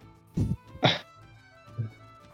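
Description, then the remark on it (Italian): A small dog about 10 cm in size lets out three sharp, high yaps. The first two come in quick succession and the third follows after a short pause, with no talking. “C'era, c'era, un cane qua di circa 10 cm che voleva discutere con Paco, evidentemente.”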